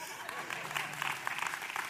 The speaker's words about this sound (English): hey, come on, somebody clap.